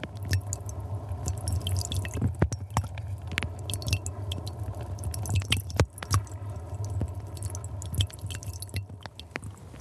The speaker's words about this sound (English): the peat disintegrating at the side of the course suddenly sounded like avalanches um, splashing into the into the groundwater at the base. This is a recording made with this microphone, the LOM Uzi, taken down a borehole in the Lost River Channel.